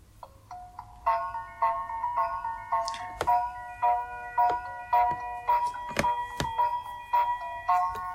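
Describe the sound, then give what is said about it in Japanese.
A bright, bell-like electronic train station departure melody of the JR East Sōbu Line chimes in a steady run of repeated notes, fairly loud and clear, with sharp percussive clicks punctuating the tune and no voices. “これメロディーです。うん、これ総武線ですね。”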